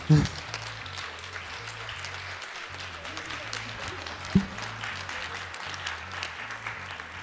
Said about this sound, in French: On peut les applaudir encore. Merci.